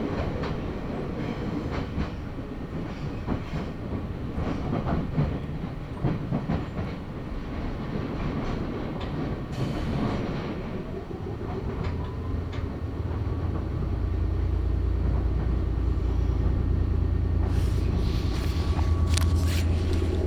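A Nagoya Railroad (Meitetsu) Mikawa Line commuter train, travelling from Hekinan to Chiryu in Japan, runs steadily on the rails, a continuous rumbling drone with faint clicking from the tracks, growing into a heavier, deeper low roar in the final seconds.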